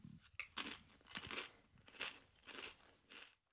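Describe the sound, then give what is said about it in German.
Someone crunches a potato chip, several crisp, crackling bites in an uneven rhythm, fairly quiet, with no talking, the microphone held slightly away. “Und die ist, ab dem Moment, wo ich hier den Chip nehme, halte ich das Mic so ein bisschen weg und dann.”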